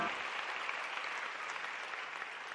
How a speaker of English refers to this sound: Let's give Lord a hand clap. Come on. Praise Him.